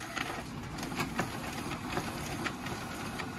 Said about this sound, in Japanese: これはコピー機の音ですねあこれいいかもそうこれいいかもっていうね